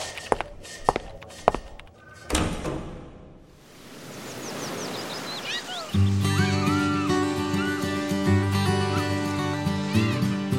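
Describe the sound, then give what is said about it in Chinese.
A few sharp footsteps, then a dull thunk as a door is pushed open, the door said to lead into the Zuo Bian tea room (佐编茶水间), followed by a swelling hiss with faint chirps before loud, steady music starts. “Hello，只要继续往前走，推开门就是佐编茶水间。”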